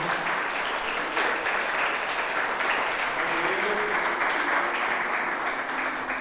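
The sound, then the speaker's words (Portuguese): An audience claps steadily in applause to the Lord, God Almighty, a dense, continuous patter of many hands that holds at an even loudness for several seconds, with a faint murmur of voices beneath. “Dê um aplauso ao Senhor, ao nosso Deus Todo-Poderoso.”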